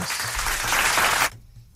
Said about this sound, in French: L'applaudissement qui coupe oh, oh.